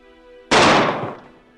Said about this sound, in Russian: Грохнул выстрел, и господин Смит свалился со стула.